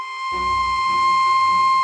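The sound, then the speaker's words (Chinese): In a story, the shy prince whistles to call his brother, a fire-breathing flying dragon: a single long whistle holding one steady, fairly high note without wavering, while a low rumbling wash rises beneath it shortly after it begins. “喷火飞龙一听到害羞王子的口哨声，立刻飞过来，站在窗外。”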